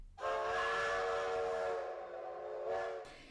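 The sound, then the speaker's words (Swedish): A steam train whistle blows one long, steady, loud shriek with rich harmonic tones and a breathy hiss, wavering slightly near the end before cutting off abruptly. “Hällnäs sanatorium hade ett café och till och med en egen tågstation som kallades Hoppets perrong.”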